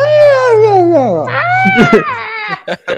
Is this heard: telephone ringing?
no